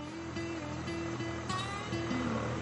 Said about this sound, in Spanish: Detrás de ella aparece un pequeño tractor de color verde. Al oírlo, Raquel se detiene